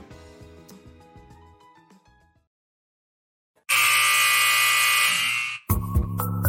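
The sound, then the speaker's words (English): The final buzzer of a Miami Heat basketball game: a loud, harsh electronic buzzer blares for about two seconds after a brief silence, then cuts out into a burst of crowd noise; quieter musical tones play at the start. “The sound of the final buzzer means it's hangover time.”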